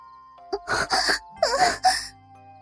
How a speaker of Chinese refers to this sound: 一声悠长的呻吟从营帐透出。